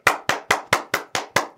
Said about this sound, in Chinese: 忍不住我都给自己鼓掌。